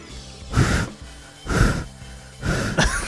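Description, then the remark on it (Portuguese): A voice imitates a Call of Duty player breathing heavily with an open headset microphone against his throat: three loud, rasping breaths, roughly one per second, with no talking. “Ele fica respirando com a porra do microfone na garganta, velho.”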